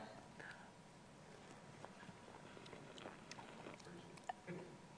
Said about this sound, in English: I, I hope y'all could hear that. Sorry, we were like slurping. definitely slurping.